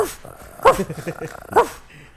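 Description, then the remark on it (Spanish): A person imitates a dog barking, producing two loud, sharp bark-like yelps about a second apart, with voiced growly sounds in between. “Tú siempre has tenido un buen ladrido, ¿sabes?”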